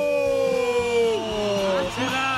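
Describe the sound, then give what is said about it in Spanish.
A crowd cheers with long, sliding whoops and shouts, several voices rising and falling together at moderate loudness, with little sign of clapping, as a woman guest is introduced on a radio show. “Un aplauso para”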